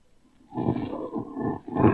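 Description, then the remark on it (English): A loud, low humming drone rises out of near silence and holds steady with a rough, throbbing texture, swelling again toward the end, as if resonating inside a metal object. “It's a curious humming sound that seems to come from inside the object.”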